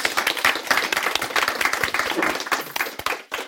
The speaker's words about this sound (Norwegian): Dere kan klappe for henne også.